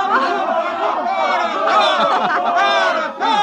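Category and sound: crowd, crowd cheering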